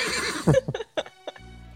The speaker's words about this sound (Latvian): Nav man jingls ar kļūdu, man ir tikai piemēram šī tāda. Tāpēc, lai zirgs zviegtu.